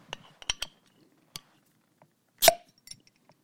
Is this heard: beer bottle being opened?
yes